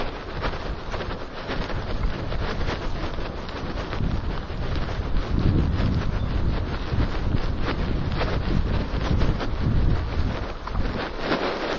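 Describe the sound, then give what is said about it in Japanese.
Steady, heavy wind buffeting right against an IC recorder hidden inside a scarf, outdoors while walking around a pond, a dense low roar with rumbling gusts that swell near the middle and keep pounding throughout, with no voices. “今ねマフラーの中にね IC レコーダーをね、えー、仕込んでね録音してるんですけど風の音入ってるでしょうねきっとね苦しいと思いますがご勘弁を。”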